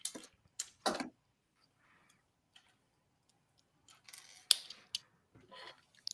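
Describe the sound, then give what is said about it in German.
Sharp mechanical clicks from a toy light brick, found in a sorting pile of building bricks, tap out Morse signals in uneven bursts, some short and some drawn out, separated by quiet gaps. No one speaks. “Ich gebe hier ein paar Morse-Signale.”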